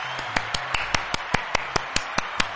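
Steady, rhythmic clapping, about a dozen sharp claps at an even quick pace, with no talking over them.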